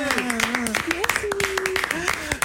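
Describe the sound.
A small group applauds up close, with irregular sharp claps throughout and voices calling out over the clapping.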